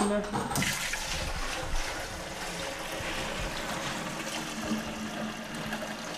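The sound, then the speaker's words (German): Clean water pours steadily into the plastic clean-water tank of a carpet cleaning machine, a continuous rushing, splashing fill for several seconds, with a brief clunk at the start. “Da kommt das klare Wasser rein.”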